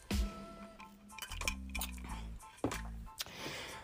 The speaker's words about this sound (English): Let me let me sip my let me sip my coffee for one second, y'all. Hold on.